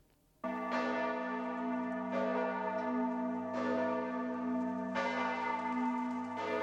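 Large cathedral bells in Florence peal loudly and continuously, with strong new strikes arriving about every one and a half seconds over a rich, sustained ringing hum. No voices are present.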